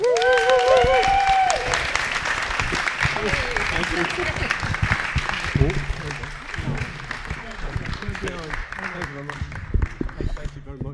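A crowd bursts into sustained applause with whoops and cheers for a guest who produced and directed episodes of The Bill, loud at first and thinning slightly over about eleven seconds, dense clapping filling the whole stretch.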